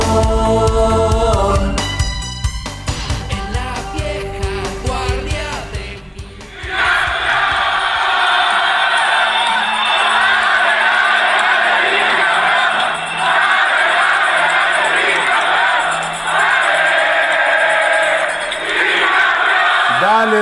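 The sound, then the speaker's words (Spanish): After a few seconds of music, a large, loud crowd of Atlas football fans in the city of Pachuca roars at a final, chanting "campeón bicampeón" and cheering continuously with dense, overlapping voices that stay steady until the end. “campeón bicampeón, gritaban anoche los rojinegros que lograron llegar los partidarios del Atlas hasta la ciudad de Pachuca”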